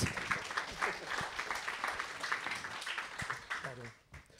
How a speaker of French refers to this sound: Déjà, applaudissez Romain Toulois, Ronan Toulouat.